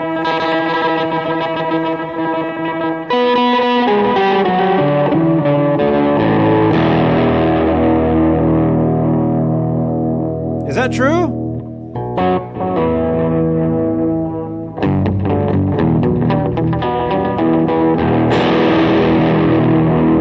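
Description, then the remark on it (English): Heavily effected electric guitar chords ring out with distortion and echo through a pitch pedal that does not return to pitch when released, the pitch bending and wavering slightly sharp on its own as the notes sustain, with no talking. “Watch when I let go of the pedal. It slightly goes sharp on its own.”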